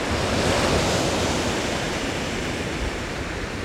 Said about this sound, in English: And the rumble of a huge chunk of ice breaking off a glacier and causing large waves.